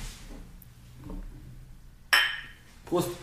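glasses clinking

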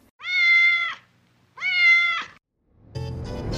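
cat meowing

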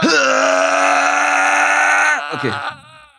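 person screaming

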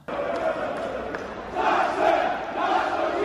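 football fans chanting

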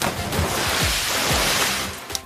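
surf waves breaking

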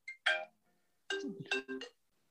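telephone ringing

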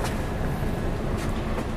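city bus ride

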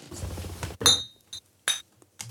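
glasses clinking

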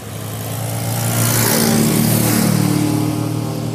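motorcycle engine revving

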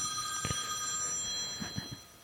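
telephone ringing

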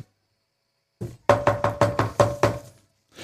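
knocking on a door

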